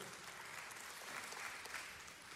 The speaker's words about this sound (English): I can tell by your sputtering applause you haven't really faced that yet.